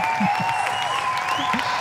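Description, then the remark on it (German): An audience claps and cheers continuously, a dense, steady wash of applause with shouting voices and a few whistle-like tones rising above it. “Das ist jetzt aber nicht der Dino, sondern das ist das Publikum, das sich freut.”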